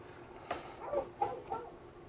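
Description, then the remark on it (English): A dog barks at a possum on a fence, four short, sharp barks in quick irregular succession, fairly faint over a steady background hiss with no one talking. “so, I think it's probably a possum on a fence back there.”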